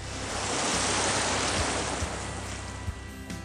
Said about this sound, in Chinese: 紫色沙滩上还有一个很美丽的自然岩体，岩体的神奇之处在于巨大的岩石中间有一个岩洞，巨大的海浪不断从岩洞内穿过。